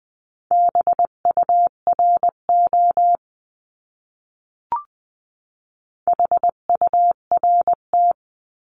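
A steady mid-pitched tone keys out Morse code in brisk dots and dashes at 18-20 words per minute, one word sent as a practice lesson, then after a pause and a faint click, sent again. No voices.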